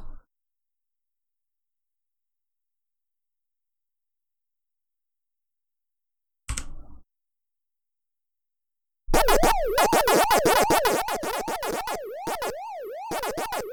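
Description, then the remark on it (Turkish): Bright electronic bleeps and warbling, siren-like sweeps repeat in quick bursts after a short blip: 8-bit chiptune sound effects from the 1980 arcade game Pac-Man, loud and alone with no talking. “Hızlıca şu 8 bit chiptune mantığını kavrayalım diye geçeceğim.”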